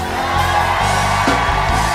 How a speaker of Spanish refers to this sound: Y antes que se vaya un grito de gloria para Jesús.